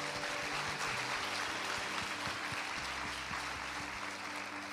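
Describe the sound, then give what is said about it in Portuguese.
A church crowd breaks into sustained applause as a praise offering to the Lord, dense and steady clapping that fills the whole stretch at an even loudness, with a low held musical drone humming underneath. “Dê, dê a Deus uma adoração, uma salva de palmas.”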